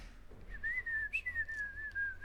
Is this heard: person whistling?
yes